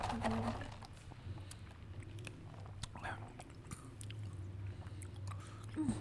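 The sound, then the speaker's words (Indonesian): Chewing of a crunchy KitKat chocolate wafer, with irregular sharp crackling bites scattered over several seconds against a low, steady background hum, and no talking. “Ini yang coklat ya, iya, ada KitKat Kit kat KitKatnya juga. dari Teguk ya, coba. dan crunchy crunchy gitu.”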